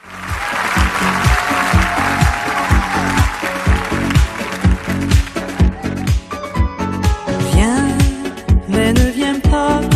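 A French chanson recording plays on the radio station Europe Roll at full volume, driven by a steady thumping beat under dense, sustained instrumental harmonies, with a gliding melodic line rising over the rhythm toward the end.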